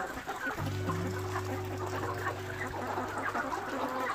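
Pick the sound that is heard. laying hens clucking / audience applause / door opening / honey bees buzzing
laying hens clucking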